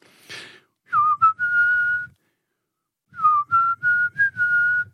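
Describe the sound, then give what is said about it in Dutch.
A person whistles a short melody, attempting to imitate a well-known song's whistled intro: two phrases of sustained, gliding notes separated by a brief pause, with no talking over it. “Met een eh, vrij eh, bekend uh, fluitmelodietje als intro. Ik, ik zal eens een poging wagen of ik hem na kan doen.”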